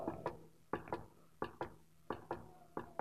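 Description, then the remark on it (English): A voice imitates the gallop of a white horse with sharp tongue clicks in quick pairs, repeating in a steady clip-clop rhythm for several beats, fairly quiet with no talking. “That was my best attempt at making a sound of a gallop, all right?”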